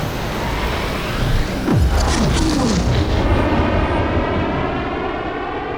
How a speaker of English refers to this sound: Take off in three, two, one.